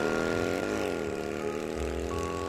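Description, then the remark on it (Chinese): A driver starts a car engine and turns the throttle: a loud, steady drone, its pitch swelling in a brief rev before settling back to a rumbling idle. No one speaks. “说完，长发司机就发动了引擎，扭动了油门，载着这一对男女在马路上快速的飞驰。”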